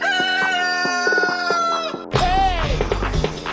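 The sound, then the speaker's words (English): A loud rooster crows a long, drawn-out cock-a-doodle-doo, followed by a second harsh crowing call layered with clucking and low barnyard rumble, used as a sound effect to introduce a game segment. “All right, uh, it is time now that we go play some chicken.”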